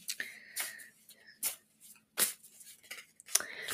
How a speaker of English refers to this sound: And when I uh, usually get some pictures when I shuffle the cards just before I pull the cards, I'm going to pull three cards for you,